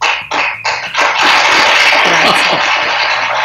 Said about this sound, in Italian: Alexa, fammi un applauso.